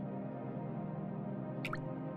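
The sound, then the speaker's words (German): A steady low, murmuring ambience in a cave with a small clear lake, broken near the end by one or two bright, echoing water drops landing. No voices. “Der Takt des tropfenden Wassers versiegt für einen Moment.”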